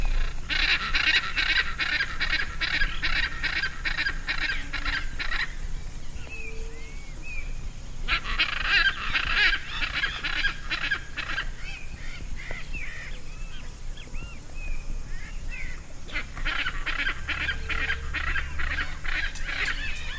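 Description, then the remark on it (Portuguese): Hyacinth macaw (arara azul, Anodorhynchus hyacinthinus) calls: loud, harsh, raucous squawks repeated rapidly in three long bursts separated by short pauses, with no talking, over a faint low background rumble. “o episódio de hoje é sobre a belíssima arara azul, Anodorrincos e Acintinos.”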